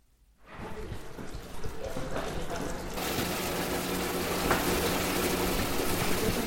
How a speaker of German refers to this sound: Die sprudelnden Wasserbläschen und das nach Kräutern duftende warme Wasser lassen schnell Schmerz und Müdigkeit vergessen.